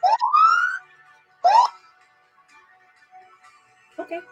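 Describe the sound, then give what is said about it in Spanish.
An alarm sounds in two rising electronic whoops, a longer one and then a short one, fairly loud, followed by near silence and a brief voice at the end. “Esa es la alarma, es la que esto va a estar bomba.”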